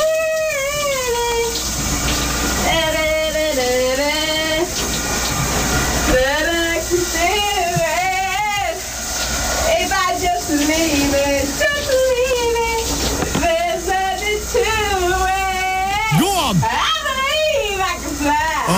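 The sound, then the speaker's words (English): A woman sings a wavering, warbling tune in the shower over the steady hiss of the running water, her voice rising and falling in long phrases with brief pauses. “This is my missus uh, enjoying herself yesterday in the shower.”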